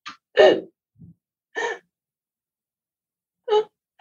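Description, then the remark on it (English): A voice imitates agonal breathing, as in cardiac arrest: three short, harsh gasps spaced irregularly with long silent pauses between them, fairly loud, plus a faint low breath in one gap. “But sometimes people with the cardiac arrest can have something called agonal breathing. They can have little gaps, so they can be pause”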